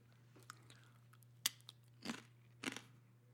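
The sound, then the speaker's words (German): Crunching of potato chips being chewed while eating, with a sharp crack followed by two longer, crackly bursts of chewing over a low steady hum. “Oh, ich esse gerade Chips.”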